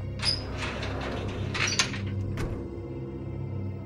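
heavy door opening

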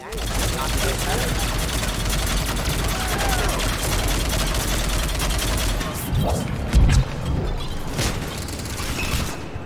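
video game gunfire

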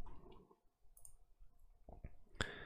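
computer mouse click

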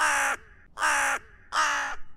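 crow cawing

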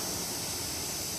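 train passing nearby

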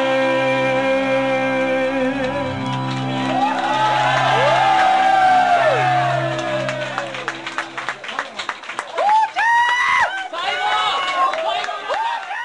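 crowd cheering

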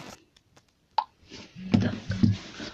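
phone message notification tone

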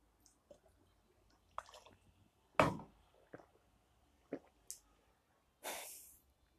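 speaker drinking water

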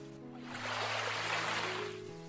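ocean waves washing ashore

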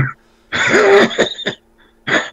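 coughing and throat clearing

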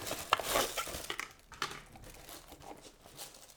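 rustling

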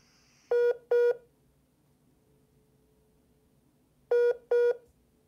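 phone number being dialed

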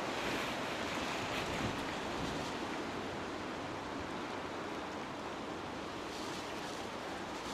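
wind blowing outdoors

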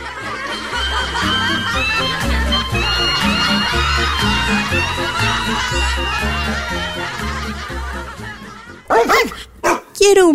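dog barking

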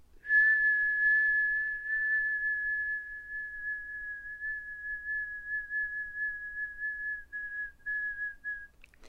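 person whistling

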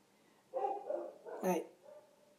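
dogs barking

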